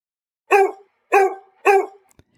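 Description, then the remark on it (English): Three sharp, loud dog barks in an even rhythm, each short with a quick decay, followed by a couple of faint clicks and silence. “That's dog speak for Did You Know?”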